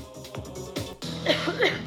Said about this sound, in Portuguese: e a mulher dele, ou alguém ali no público, não percebi bem, ela tosse quando é a resposta certa, meio.